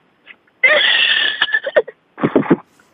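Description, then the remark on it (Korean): A phone-in contestant with a nickname imitates a pony's whinny in a broadcast contest: a long, strained, high-pitched cry that breaks into shaky pulses, then a short burst of fluttering nickers. “자, 이분이, 이분이 …입니다.”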